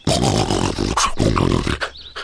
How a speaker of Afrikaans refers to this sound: Net toe hoor die kinders die gesnorke gesteen word al harder en die geluid kom van agter 'n groot rots.